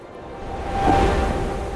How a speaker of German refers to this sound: Meeresrauschen.